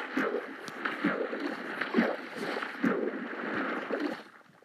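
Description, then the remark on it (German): Steady watery sloshing and splashing from a boat being rowed through water in a video game, with rhythmic strokes roughly every second, moderately loud before fading out at the end. “Also mit dem Boot fahren geht definitiv besser als Spielen.”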